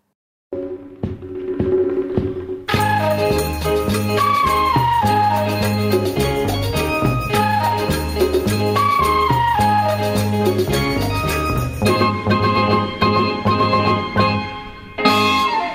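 A recorded Thai song plays, opening with a soft instrumental lead-in before a full band bursts in after a few seconds and carries on steadily and loudly to the end.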